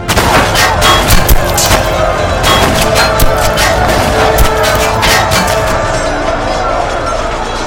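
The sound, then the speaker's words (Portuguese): A chaotic battle din as charging knights clash with enemy horsemen: splintering lances and swords clanging against shields, with rapid, irregular sharp cracks and impacts over a dense, loud roar that continues throughout. “Um terrível alarido de lanças se partindo e espadas se chocando contra escudos.”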